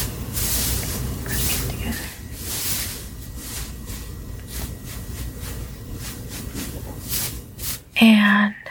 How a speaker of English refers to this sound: So I'm going to start wrapping up the hair here. Alright. Gently.